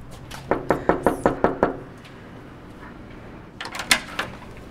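Seven sharp knocks rap on a door in a quick, steady series, followed by a pause and then a few softer clicks and thumps, as if from a latch or movement nearby.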